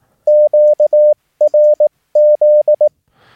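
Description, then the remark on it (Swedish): A steady, clear Morse code tone keyed in three separate letter groups of long and short beeps spelling QRZ, sent with a key, loud, with no talking, ending in faint static. “Så QRZ låter så här.”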